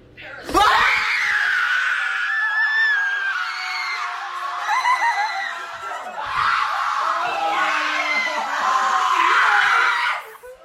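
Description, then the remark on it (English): A group of people scream excitedly as Jane Fonda begins to announce Parasite, in two sustained, loud bursts, high-pitched and overlapping, with a brief dip in the middle before the shrieking swells again. “and we like it was like screaming.”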